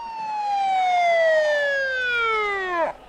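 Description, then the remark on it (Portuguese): A single loud siren wail that slides slowly downward in pitch over a few seconds, then cuts off abruptly with a brief dip, heard alone without any talking. “A mulher levantou a mão e o silêncio impôs-se entre a multidão quando se ouviu um som de uma sirene.”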